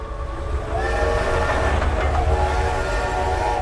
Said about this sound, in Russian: Казань. Начало 1920-х годов. На железнодорожную станцию прибывает состав с ценным секретным грузом